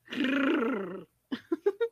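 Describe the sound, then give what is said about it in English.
A person imitates a cat's purr with a rough, rolling voiced rumble held for about a second, then adds a few short, clipped purring bursts, fairly loud. “now we are here purring for the audience.”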